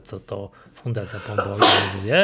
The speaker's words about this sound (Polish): Przepraszam. O Jezus, na zdrowie.